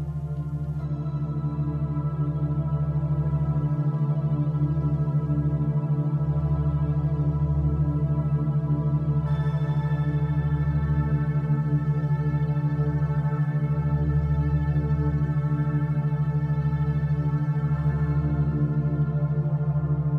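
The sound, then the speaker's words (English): A steady, humming synthetic drone of layered sustained tones holds at an even level throughout, with a brighter shimmer joining midway, like a binaural beat relaxation track. No one speaks. “And it's a binaural beat for relaxation.”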